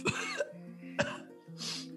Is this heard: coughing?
yes